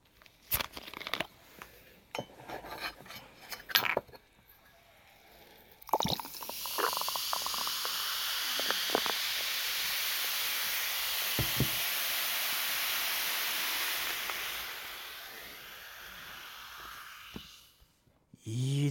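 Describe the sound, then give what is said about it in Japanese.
A carbonated drink fizzes loudly and steadily for about ten seconds, a bright crackling hiss, preceded by a few clicks and handling taps, then fading out. “でも炭酸の音と聞いて一番に思いつくのはあの蓋を開ける時のプシッって音ですよね”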